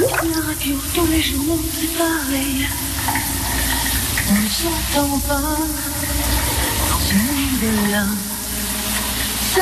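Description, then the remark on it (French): A shower runs in a bathroom with a steady, full hiss of spraying water while a French female singer sings a wandering melody over it, her voice clear, with brief pauses between phrases. “Une chanteuse française que vous connaissez très bien, Fred, chante sous sa douche”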